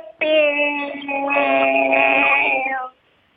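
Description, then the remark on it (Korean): A single long, steady voiced tone, loud and close, held for nearly three seconds before cutting off: a human voice imitating a cicada's song rather than a real insect. “네, 그럼 뭐 먼저 매미 친구 시작하겠습니다.”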